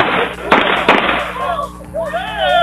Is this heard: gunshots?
yes